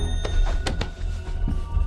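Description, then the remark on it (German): A wall clock in a studio strikes five o'clock with metallic chimes at an uneven pace, each blow ringing into a sustained tone over a low background rumble, with no voices present. “Die Wanduhr im Studio schlug gerade fünf, als der zweite Detektiv, der am Fenster Wache hielt, blitzschnell zur Seite sprang und das Zeichen gab.”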